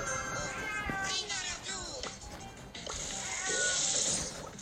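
A cat, just woken from snoring, meows repeatedly in agitated, drawn-out cries, loud, with wavering pitch and brief pauses between calls.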